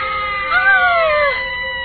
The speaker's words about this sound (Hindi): साधु ने उस गुड़िया को सामने बनाए हुए चक्र में रख दिया और उस पर ढका हुआ वो लाल कपड़ा हटा दिया कपड़ा हटते ही भूतिया गुड़िया चीखने लगी